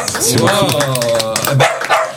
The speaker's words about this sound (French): qui aboie, ça veut bah dire qu'il est, bah, est d'accord.